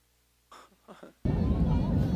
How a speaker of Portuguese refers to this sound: Olha que avião. Olha o voo.